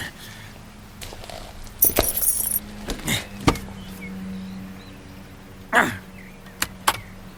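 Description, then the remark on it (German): A brief jingle of ignition keys lasting under a second, followed by scattered clicks and clunks over a low mechanical hum, with no one speaking. “Zündschlüssel. Ich will in den Laderaum sehen.”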